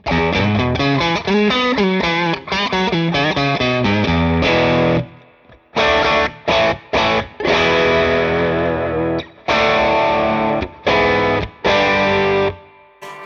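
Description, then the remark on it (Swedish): Heavily distorted electric guitar played through a Heavy Hand distortion pedal, loud chords and riffs in a dense fuzzy tone for about five seconds, then after a short break switched to a Browning pedal based on the same circuit, continuing with another gritty overdriven sound in choppy bursts and sustained chords. “Så att vi, vi spelar först på heavy handen eh, typ 5 sekunder och sen så slår jag över till Browning.”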